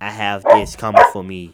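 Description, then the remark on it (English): A dog, an emotional support animal wanting to play, barks twice in short, loud bursts, overlapping a person talking steadily throughout. “People can hear him barking.”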